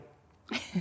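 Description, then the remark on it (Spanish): A bottle of tequila being opened: a sudden pop with a brief airy hiss, followed by a softer dull knock, all within a split second after near silence. “Abriendo una botella ah.”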